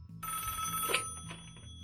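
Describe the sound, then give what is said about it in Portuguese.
A telephone rings with a continuous, steady bell tone that starts just after the beginning and holds through the end. It is fairly loud, with no talking over it. “Vamos ouvir agora mais o telefone tocando.”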